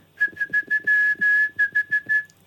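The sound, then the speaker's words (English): Someone whistles the classic old Nokia text message alert, a clear run of three quick notes, two longer held notes, then three quick notes again, all on one steady pitch. “yeah, that was the old Nokia uh, text message.”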